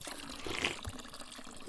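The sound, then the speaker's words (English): Water from a fresh mountain spring on a trail runs in a steady, gentle stream, a soft continuous splashing trickle with no voices, quiet and unbroken throughout. “drinking from a fresh mountain water spring.”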